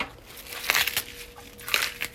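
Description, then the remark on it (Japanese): Crisp rustling and crinkling of cut cabbage dropped into a pot, coming in two or three short bursts, fairly quiet, with no talking. “鍋の中に入れておりますよ”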